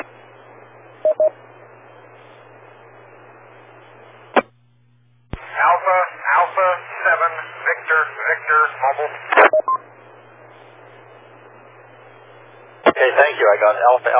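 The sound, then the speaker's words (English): Steady radio static hisses for several seconds, broken by sharp clicks, during a radio exchange of call signs. Then a thin, muffled voice comes through the noisy channel, and a brief burst of static returns before the voice cuts back in. “Alpha 7 Victor Victor, and then the next one I copied uh, KF7E and uh, the static gotcha.”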